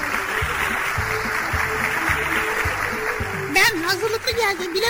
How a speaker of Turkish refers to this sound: abi tamam teşekkür ediyoruz alkışlar için.